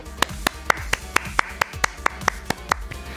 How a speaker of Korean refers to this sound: 큰 역할이든 작은 역할이든 8월을 위해 수고한 모든 분들께 뜨거운 박수를 보냅니다.